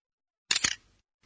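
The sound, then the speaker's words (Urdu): A single camera shutter opening, a crisp double-snap of mechanical clatter that fades quickly into a short tail, standing alone in silence. “یہ کیمرے کا شٹر کھلنے کی سوتی جھلک تھی اس آواز کو جاپانی میں اس طرح بیان کرتے ہیں ارے یہ تو اردو سے ملتی جلتی آواز ہے”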